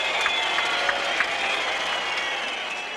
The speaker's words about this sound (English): And the crowd reacts.